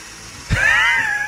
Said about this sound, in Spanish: Tiene una construcción acá al lado. Empezó, el taladreo, señores.